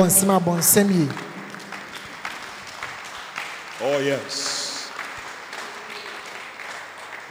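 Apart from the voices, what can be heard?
audience clapping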